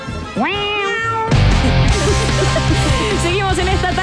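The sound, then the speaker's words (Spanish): A single long, drawn-out cat meow rises and holds, loud, before busy music bursts in and continues with faint mewing tones woven through it. “Ahora hacemos ruido de gato.”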